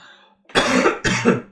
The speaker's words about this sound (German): Verzeihung. Wie gesagt, ich fühle mich heute nicht sonderlich. Falls da noch der ein oder andere Huster kommt, entschuldige ich mich jetzt schon.